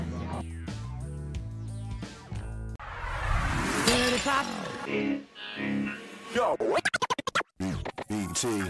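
A pop song intro opens with layered synth tones, then erupts into glitchy, scratchy electronic effects and ends in rapid stuttering chopped bursts, loud and close, with no talking over it.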